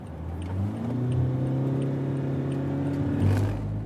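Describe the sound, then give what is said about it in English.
A car engine revs up steadily as the car accelerates along a highway shoulder to get back on the highway, a continuous rising hum with road rumble, ending in a louder surge of low-end noise. “Uh, let me put the car back in drive. That would be a good idea. See if I can get some speed going on on this shoulder.”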